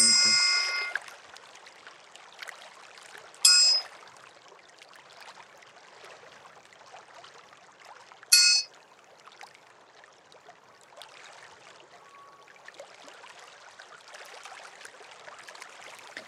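Bright ringing tones from a singing pyramid, struck a few times with sustained shimmering overtones that hang over a soft, airy background; no one speaks.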